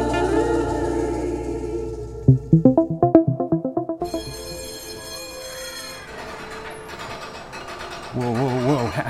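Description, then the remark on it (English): A ferris wheel mechanism ratchets as it turns, a quick run of about a dozen sharp mechanical clicks, followed by a steady whirring hum, with people talking before and after. “How safe is this thing, really? The operator's got some kind of certification, right?”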